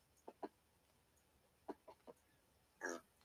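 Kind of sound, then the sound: animal, pigs grunting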